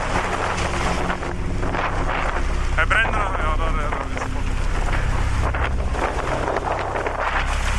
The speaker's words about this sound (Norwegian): Det er orkan i kastene.